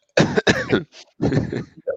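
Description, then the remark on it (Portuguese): A loud fit of coughing: several harsh, chesty coughs in quick succession, a brief pause, then another rough burst trailing off with a small throat-clearing sound. “Pois essa tosse não parece.”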